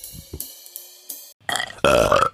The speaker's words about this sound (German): Das ist so der einfachste Trick, wie man auf Kommando rülpsen kann.